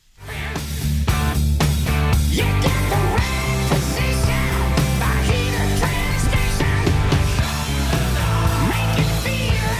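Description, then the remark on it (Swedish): A loud, dense hard rock song, the first single from the band's latest release, plays steadily throughout, with driving drums, heavy guitars and a brief sung vocal over the full-band mix. “Senaste alstret som släpptes så var första singeln också.”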